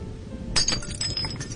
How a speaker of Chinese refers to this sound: 啪的一声，桌子上将成的玻璃杯掉到地上，摔成了粉碎。